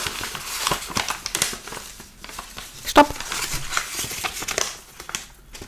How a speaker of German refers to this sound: Möchtest du noch einen zweiten Begriff haben aus dieser Rascheltüte?